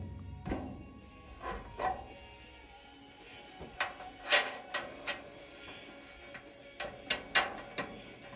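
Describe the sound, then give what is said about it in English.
Metallic clanks, knocks and thuds come in irregular bursts as a person on a dining room floor wrestles and shifts a giant metal cabinet used to store baking tools, with short pauses between the louder bangs and no voices. “I'm fighting with a giant metal cabinet that the girlfriend now uses to store her baking tools.”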